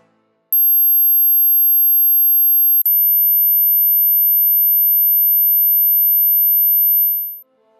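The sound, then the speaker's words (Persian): A loud, steady electronic radio signal tone from the Sputnik satellite, picked up on a radio receiver, that holds one pitch, abruptly jumps to a different sustained tone partway through, then fades out, with no speech. “ویفنباک به همراه گویر سریعا به دفتر رفتن و بعد از چند ساعت ور رفتن با دریافت کننده و شنیدن یه سری موجهای بی ربط و حتی خیلی خیلی خصوصی بالاخره تونستن امواج اسپوتنیک رو رسد و شناسایی کنن صدایی که تقریبا اینجوری بود”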